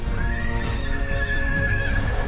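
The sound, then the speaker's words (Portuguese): Horses neigh and whinny in an agitated, drawn-out cry, loud, with a dense rumble of movement and faint hoof clatter beneath. No one speaks. “Os cavalos começam a ficar mega agitados com essa algazarra toda.”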